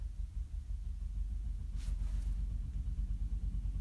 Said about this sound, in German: Und hier fährt gerade ein Traktor vorbei. Auch schön.